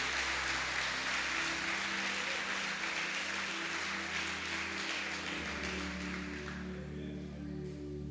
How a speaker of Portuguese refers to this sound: Será que esse Deus merece um forte aplauso nessa noite?